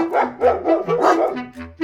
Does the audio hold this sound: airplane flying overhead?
no